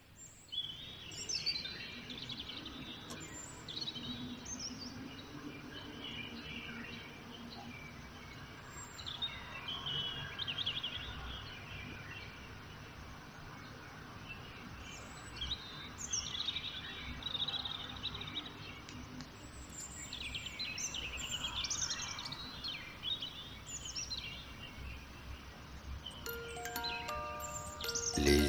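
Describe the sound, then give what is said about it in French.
Several birds sing and chirp continuously at 4:30 in the morning outside a home in Shanghai, overlapping trills and tweets over a soft low background hum; no one speaks. “Maintenant, les oiseaux sont en train de chanter.”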